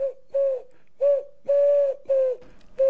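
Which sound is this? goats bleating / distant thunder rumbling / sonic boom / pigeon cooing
pigeon cooing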